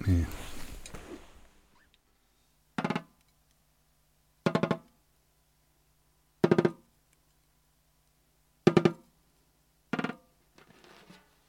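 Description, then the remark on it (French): A drumstick taps lightly on a drum kit five times, short dry clicks spaced a second or two apart, fairly soft, after a fading wash of noise at the start. “des choses très fines comme celle-ci, Généré euh, générée par la, la, batterie”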